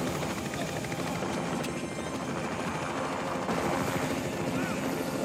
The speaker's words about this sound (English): And the helicopter.